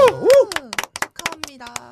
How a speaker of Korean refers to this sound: 어, 결혼을 하셨네요. 네, 축하합니다. 일단 축하 박수 한번 보내드리죠.